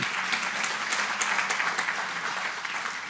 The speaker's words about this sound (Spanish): Un aplauso al Señor, qué hermoso.